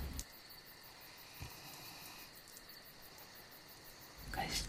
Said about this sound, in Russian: Сонно подтягиваясь, она засыпает, но уши навострила, чтобы слышать тишину леса и пение сверчков.